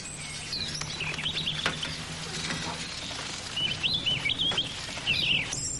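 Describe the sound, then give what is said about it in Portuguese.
A small bird chirps in quick, high bursts of twittering notes over a steady background hum and faint low rumble. “Vai, passarinho.”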